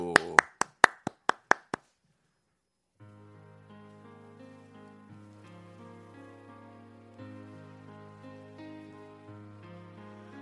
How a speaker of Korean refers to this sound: 예, 박수로 제가 청해 듣겠습니다. 박수.